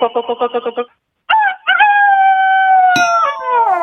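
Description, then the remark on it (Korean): A person imitates a rooster crow to try to win a gift: a quick run of six clucking pulses, a short pause, then a long, loud, sustained wavering cry that trails off like a howl. “그럼 닭소리 한번 해볼까요?”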